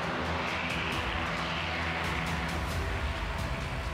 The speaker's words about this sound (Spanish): Para los que nunca han sido atacados por un avión, un avión de guerra, primero se eleva y esos motores del avión donde se empinan suenan demasiado fuerte. Y una vez se alcanzan cierta altura, se dejan venir en picada para atacar.